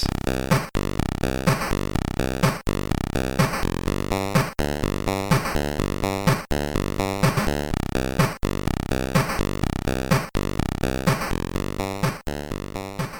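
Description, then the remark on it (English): Harsh, buzzy chiptune music from a Sega Master System video game plays loud and alone, a dense looping phrase that repeats every couple of seconds with crunchy square-wave tones. “Crunchy. Yeah, very ah, crunchy. Uh, that is Trivial Pursuit for Sega Master System.”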